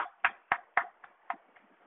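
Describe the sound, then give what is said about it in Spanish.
A short burst of hand clapping in Spain: about seven sharp, evenly spaced claps at a quick steady pace, loud at first and then growing fainter, with no talking. “aplauso,”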